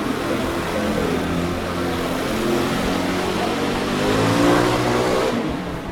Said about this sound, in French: Et je pense au moins un million de scooters. Mais pas trop de casques.